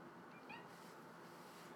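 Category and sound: animal, domestic cat meowing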